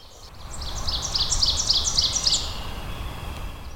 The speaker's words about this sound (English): The cacophony of frogs and birds just about drowns out all other sounds.